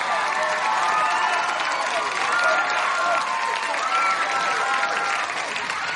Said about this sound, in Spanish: Jack aplaude.